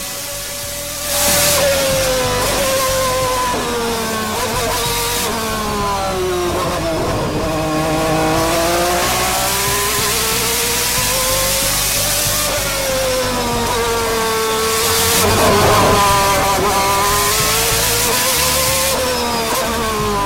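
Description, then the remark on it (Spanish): A McLaren race car engine driven by Tony Kanaan at the Sonoma circuit screams continuously, recorded by an onboard camera, its pitch sweeping up and down through repeated gear shifts and revs, loud, with no voices. “te vamos a mostrar una cámara on board de Tony Canan manejando el McLaren”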